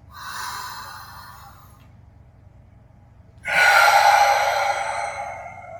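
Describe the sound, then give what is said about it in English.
An audible breath drawn in through the nose, a brief silent pause as it's held, then a louder, rushing exhale out through the mouth, with no talking. “Nice and loud out in through the nose. Fill up, hold for count, exhale through the mouth.”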